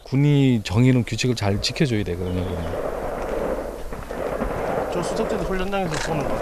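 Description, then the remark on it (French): Rifle gunfire from military exercises rolls in as a low, sustained rumble of shots echoing across open ground in a military zone near a heavily militarized border, following and partly overlapping a few moments of people talking. “Le cours de la discussion est interrompu par des bruits de fusil.”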